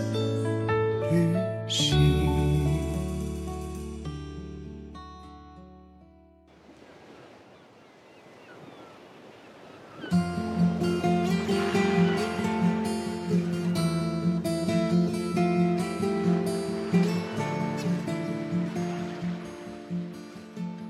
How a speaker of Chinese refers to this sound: 刚才听到的海声和风声，我想你已经猜出我要分享的是一个海边的城市了吧？